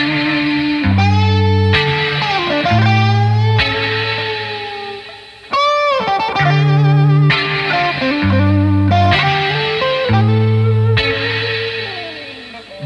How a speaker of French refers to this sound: Et clairement, là, le morceau de l'artiste dont on va écouter un morceau, il est lié aussi à l'émission. Aussi. Donc on va s'écouter ça tout de suite.